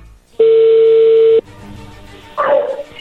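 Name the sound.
phone call connecting tone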